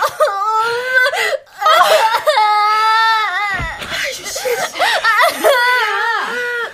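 child crying

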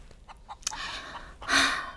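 chicken clucking

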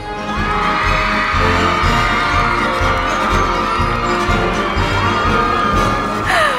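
crowd cheering and shouting

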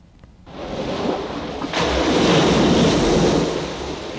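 ocean waves crashing

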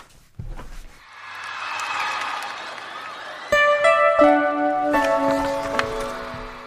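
concert crowd cheering

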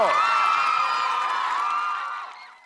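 audience applause and cheering

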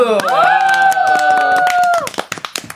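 hand clapping

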